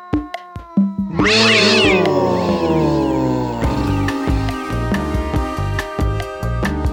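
A cat lets out a long, loud, drawn-out meow, preceded by a few short clicks and followed by a steady run of rhythmic, tonal sounds.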